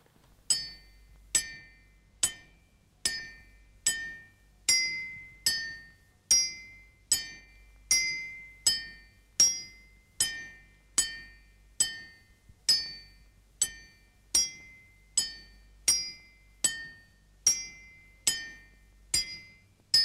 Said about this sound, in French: qui tape sur son enclume et qui chante à Martinette.